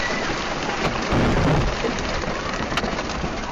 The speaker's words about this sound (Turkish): Kamp göl kenarındaydı. Çok sayıda aile çadır ve bungalov evlerde yakalandı fırtınaya. Rüzgar şiddetliydi. Kamp alanındaki ağaçlar birbiri ardına çadır ve evlerin üzerine devrilmeye başladı.